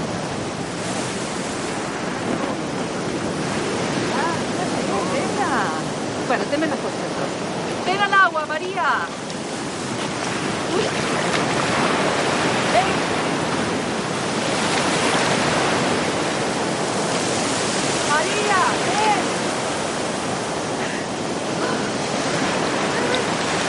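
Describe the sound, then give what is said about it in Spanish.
Waves of a rough sea break on the shore in a steady, roaring wash of surf that swells and recedes without pause, with faint bird-like chirps briefly rising above the noise. “María permanece inmóvil mientras Cachita se va adentrando y saltando las olas.”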